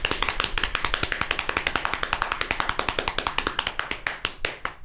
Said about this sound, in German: Ich dachte, du hörst erst auf zu klopfen oder muss ich äh, muss ich sagen?